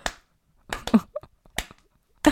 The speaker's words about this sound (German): und klatschte so ein bisschen. Ihren Rhythmus.